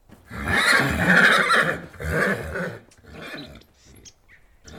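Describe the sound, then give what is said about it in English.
A horse in Tasmania snorts and whinnies in a loud burst, followed by a couple of shorter breathy snorts that fade into quiet. “The sound you've just heard is snorting.”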